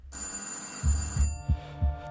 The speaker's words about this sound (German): Es klingelt an der Tür.